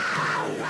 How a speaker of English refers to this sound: in this case, it's the stereotypical sound for a jungle cat